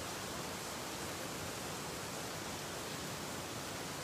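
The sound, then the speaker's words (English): Rain falls in a steady, even hiss that fills the whole stretch without pauses or individual drops standing out. It stays soft and constant, with no voices. “Lord God, the sound of the rain reminds us of your blessing.”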